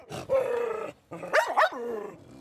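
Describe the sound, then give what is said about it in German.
Five neglected stray dogs bark and growl on the grounds of a Serbian memorial in Kosovo: a rough snarling growl followed by a quick burst of sharp, yelping barks, then more low growling, with no one speaking. “Fünf verwahrloste Hunde treiben sich auf dem Gelände herum, bis sie von den beiden Wachleuten zurückgepfiffen werden.”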